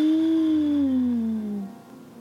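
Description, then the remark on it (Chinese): A single drawn-out howling gust of strong wind, a smooth tonal whoosh that holds steady and then slides gradually lower in pitch as it fades after about two seconds. “一阵大风，伴随着淡淡的花香，吹过来，呼，呼，呼。”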